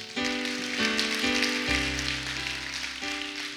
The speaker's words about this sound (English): Clap your hands like God's awesome.